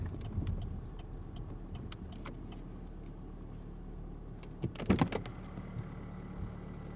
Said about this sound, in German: Sie hören die erhöhte Leerlaufzahl meines Diesels bei 6 Grad Außentemperatur.